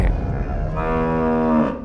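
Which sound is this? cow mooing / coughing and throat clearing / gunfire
cow mooing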